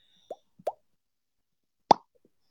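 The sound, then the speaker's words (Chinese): Someone imitates a bubble bursting with their mouth, as a sound effect for a bubble splitting open in an underwater scene: two soft, quick plops, then after a short pause a single louder, sharper pop, with no talking around them. “然后到了山洞以后，那个气泡叭裂开，我当时就在想这个气泡裂开的声音应该做成什么样啊？”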